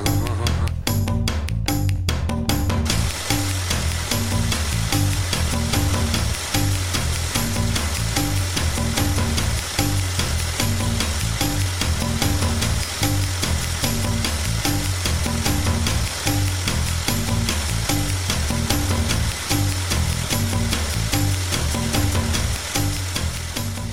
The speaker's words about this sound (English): Is that it? like an engine in the. It's an en- yeah, an engine solo. An engine.